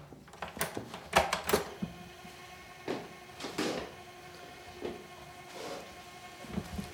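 A tape recorder rewinding: a faint, steady mechanical hum broken by a series of irregular clicks and clunks, with no one speaking.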